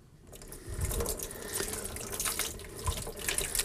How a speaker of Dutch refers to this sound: Nu door het gieten van dit water is dit proces onderbroken. Dus hij is niet meer lichtgevoelig.